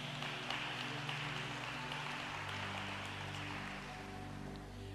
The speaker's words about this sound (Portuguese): Dê uma linda salva de palmas.